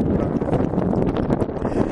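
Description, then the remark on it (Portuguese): Loud, steady wind buffeting the microphone outdoors in the sun, a dense low rumble with irregular gusty thumps that fill the whole two seconds and drown out any other sound. “Eu vou ficar por aqui, eu tentar virar de costas aqui, talvez o vento até melhore, mas o sol atrapalha.”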